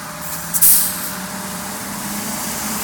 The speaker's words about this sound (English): para mostrar lo que está por ahí en Miami this is a public transit yes. bus. es un Praise bus de tránsito público